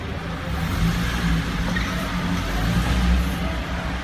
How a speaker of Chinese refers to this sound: 现场呢是发动机呢是轰鸣啊，停车位的限位墩，一辆吉普却爬不过去，还是硬冲，最后是冲过去了。